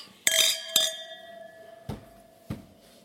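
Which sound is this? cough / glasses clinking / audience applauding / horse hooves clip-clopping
glasses clinking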